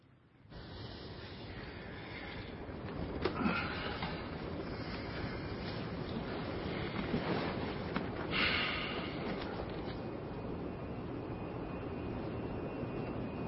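A steady, enveloping engine drone inside the cabin of Edward's private jet in flight, a dense low roar that holds constant throughout with faint rattles and brief swells, and no voices.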